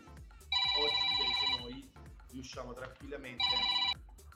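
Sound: telephone ringing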